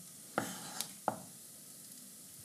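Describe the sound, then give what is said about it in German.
A knife finely dices a tomato into small cubes on a board in three sharp, uneven taps over a steady background hiss, with no talking. “Jetzt schneide ich einfach die Tomate feinwürfelig.”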